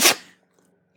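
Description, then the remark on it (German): A single quick sneeze, a sharp, breathy burst that cuts off almost at once and trails into near silence. No one speaks. “Gesundheit”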